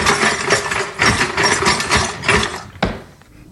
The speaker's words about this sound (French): quand t'essaies d'ouvrir le tiroir à gros ustensiles, puis là genre il bloque tout là, puis là ça donne ça là.